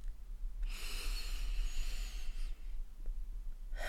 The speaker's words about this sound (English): So let's begin by inhaling deeply and exhaling completely. Again, inhaling deeply